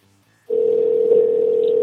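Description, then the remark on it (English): A steady electronic telephone line tone begins after a brief near-silence and holds at one unwavering pitch, loud, with no voices. “I'm just mesmerized by the ringing.”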